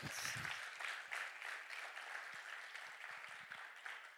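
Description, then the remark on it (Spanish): A church audience breaks into sustained applause for the Lord, a dense, steady wash of clapping that stays fairly even in loudness for several seconds with no voices standing out. “Dale un aplauso al Señor para aquí.”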